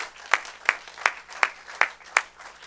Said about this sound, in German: Lass uns bitte diese Personen begrüßen herzlich willkommen heißen heute Morgen mit einem kraftvollen Applaus.